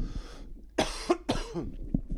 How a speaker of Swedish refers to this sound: Eh, vänta, jag måste hosta.